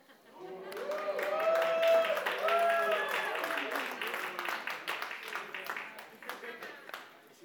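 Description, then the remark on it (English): An audience cheers and whoops loudly at a man's admission that he will become a minivan dad, voices overlapping in a sustained roar, then breaks into a scattered burst of clapping that tapers off as the cheers fade. “I'm crying inside that you're cheering because you're mocking me.”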